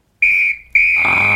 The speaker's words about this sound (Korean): 이 소리입니다. 네. 일부에 나가는 노래 가운데 이 휘파람 소리가 섞, 아, 휘파람이 아니라 호루라기 소리구나. 이 호루라기 소리가 섞여 있는 노래가 있을 거예요.